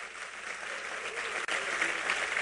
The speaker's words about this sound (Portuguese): Aplauda ele aí.